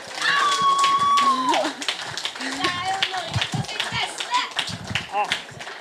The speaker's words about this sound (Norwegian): Jeg syns vi bare skal gi en eh, stor applaus til til to eh, fenomenale musikkvideoer.